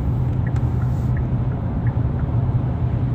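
Steady low rumble of a car interior while driving, a constant dense hum of engine and road noise with no voices, loud throughout.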